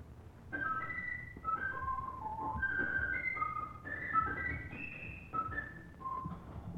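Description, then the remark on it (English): An organ plays a wood thrush song as a quick run of short, pure, high notes that rise and fall in little phrases, steady and clear over a low background rumble. “will play a few notes of each tune sung by a certain bird.”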